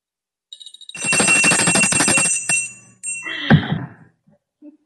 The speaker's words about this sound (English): Well, that is the smallest bell I have ever seen. Oh, that's my little cowbell.